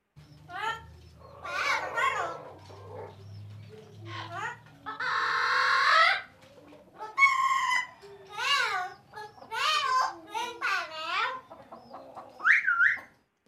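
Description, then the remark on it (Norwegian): Male turkeys gobble in a noisy, overlapping chorus of rapid, warbling bursts, loud, with several birds calling over one another throughout and a low rumble beneath, while puffing themselves up and strutting around. “Samtidig som de bråka det de hæler, blæs kalkunhannene seg opp og går rundt som om de er kongen av verden.”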